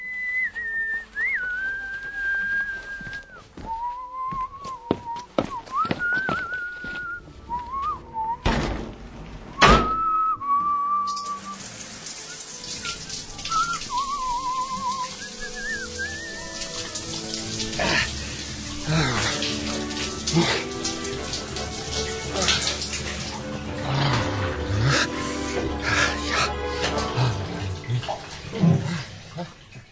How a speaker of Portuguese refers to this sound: Bem, isso também está claro. Alguém toma um banho de chuveiro.